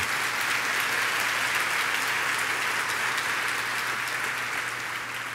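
An audience applauds steadily, a dense wash of many hands clapping at once that stays loud and even for several seconds, with no voices standing out.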